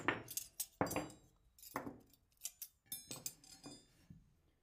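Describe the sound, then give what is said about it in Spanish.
Plates, cutlery and glasses being set down on a table to set it for a meal, a series of clattering clinks and knocks spaced irregularly, with no talking. “Queremos comer y hacemos esto, mirad. Un plato, otro plato, los cubiertos.”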